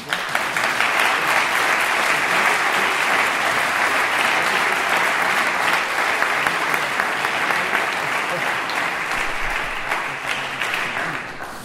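Sustained applause from an audience honouring a scientific work in optometry, a dense steady wash of clapping hands that holds at full strength for about eleven seconds before easing slightly at the end.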